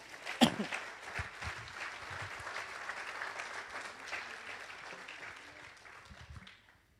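An audience applauds the Lord of glory steadily for several seconds, the dense clapping of many hands tapering off near the end, with a brief sharp whoop at the start.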